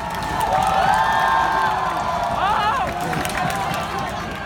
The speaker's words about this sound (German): Und obwohl die Demonstrierenden viele Dinge rufen, skandieren sie am häufigsten wohl einfach Free Hong Kong. Es geht um Freiheit, Demokratie.